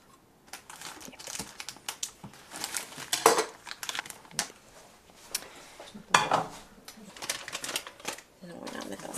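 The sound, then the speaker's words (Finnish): A pot and kitchenware are handled while setting up potatoes to boil, with irregular metallic clinks, knocks and scrapes, a few sharper clanks standing out, while voices talk quietly in the background. “Laitetaanko perunat kiehumaan kanssa?”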